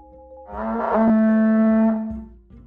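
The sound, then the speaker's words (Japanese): A conch shell horn is blown by a yamabushi (mountain ascetic) into the ear of a sleeping fox in one long, loud, sustained blast with a steady low pitch and buzzy harmonics, swelling in and tapering off over about two seconds. “山伏は狐の耳にほら貝を当てて、”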